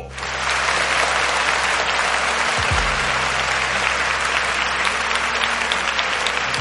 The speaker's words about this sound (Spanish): Denme un aplauso.